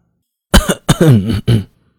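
A man coughs three times in quick succession, short raspy bursts with brief pauses between, the middle one longer and throatier, with no talking.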